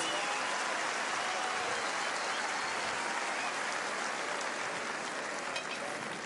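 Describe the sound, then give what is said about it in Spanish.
A crowd applauds steadily, a dense wash of many hands clapping at an even level for several seconds, with no talking heard over it. “Les agradezco sus aplausos.”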